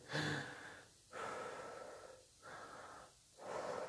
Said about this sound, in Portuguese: Meditação é uma coisa tão simples como tu sentas num local, fechas os olhos e ficas concentrado na tua respiração.